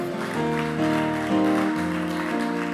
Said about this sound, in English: Give the Lord a clap of his own.